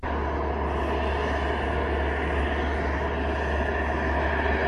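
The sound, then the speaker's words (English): A steady, loud airplane engine drone fills the space with a constant low hum and broad roar, unchanging throughout, as heard inside the cabin of President Joe Biden's plane, Air Force One, flying to Warsaw, Poland. “Poopy Pants Biden heading to Warsaw on the plane.”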